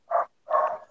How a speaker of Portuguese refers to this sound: É, desculpa pelos cachorros latindo aí.